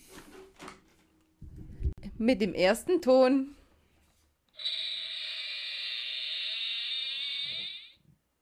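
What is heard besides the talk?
creaking door sound effect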